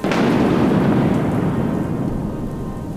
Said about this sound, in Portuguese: Esta tarde a trovoada caiu pelas encostas do céu abaixo.